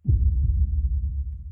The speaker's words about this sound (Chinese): 此刻，屋子里面安静的可怕。小李只听到自己的心跳声，扑通扑通。